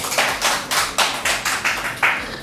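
Audience applause at a venue for a stand-in performer: steady, rhythmic hand clapping, around ten crisp claps in quick succession at an even pace, moderately loud, with no voices over it.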